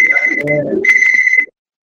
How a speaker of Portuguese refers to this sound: É... aí, esse apito aí tá demais.